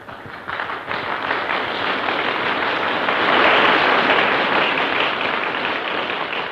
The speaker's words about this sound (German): Ein langes Schweigen. Traut sich keiner zu klatschen? Und dann kommt doch Beifall auf.